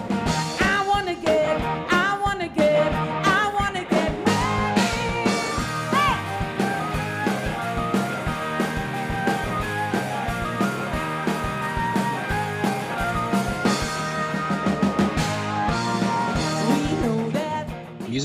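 An upbeat full-band song plays steadily at a strong, even level for the whole stretch, with driving drums, bright harmonic instruments and dense layered tones, and no one speaking over it.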